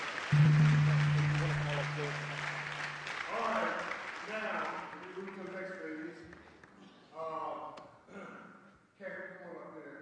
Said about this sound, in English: Come on, let's give the Lord one more round of applause.